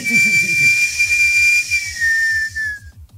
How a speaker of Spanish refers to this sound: Doble silbido, señor.